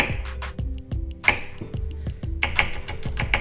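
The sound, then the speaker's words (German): A knife chops an onion rapidly on a cutting board into small strips and then small cubes, a steady run of short, sharp knocks roughly every third of a second, with a few crisper, brighter strikes mixed in. “hacke ich mir die wieder in kleine Streifen, die ich dann wiederum zu kleinen Würfeln schneide.”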